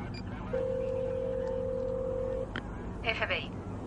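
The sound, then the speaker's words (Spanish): A mobile phone being dialed: a long, steady mid-pitched electronic tone holds for about two seconds, then a click, then a brief flurry of quick, bright key beeps over a low background hum. “Malvo llama por el móvil.”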